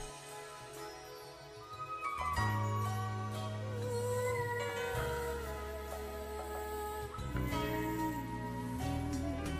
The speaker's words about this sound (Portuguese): o rap sério, o rap verdadeiro, o rap ativista, o rap com mensagem. Vamos ouvir ….